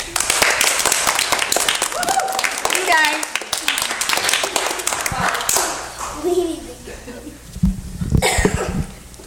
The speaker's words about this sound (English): So I, I, you deserve the thanks for this, and you guys need to give them right now a huge round of applause.